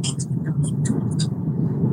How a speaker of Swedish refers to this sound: Ja, här har vi en förare. Fan, vilken jävla bil!